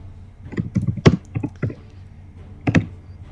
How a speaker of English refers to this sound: Alrighty, I can hear you furiously oh, typing. Furiously.